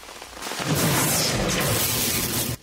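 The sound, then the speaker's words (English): A loud thunder crack from a lightning strike erupts and rumbles steadily for a couple of seconds with a rain-like hiss, then cuts off abruptly. “you have a 90% chance of surviving a lightning strike.”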